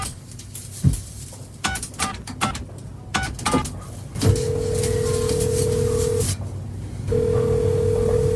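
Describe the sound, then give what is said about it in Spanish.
Several clunks and clicks, like a handset being lifted and coins dropping, then the old dial tone of a public phone booth in Spain hums steadily for about two seconds, stops briefly, and resumes. “Es el viejo tono de una cabina telefónica que aún permanece en la memoria sentimental de medio país.”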